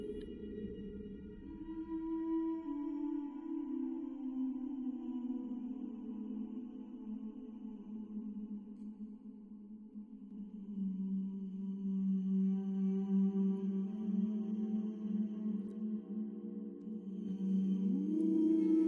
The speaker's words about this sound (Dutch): Ik moest denken aan de man die op een dag op het idee was gekomen een microfoon in de zee te laten zakken. Helemaal alleen, in de stuurhut van zijn schip, hoorde hij als eerste het geluid van een zingende walvis.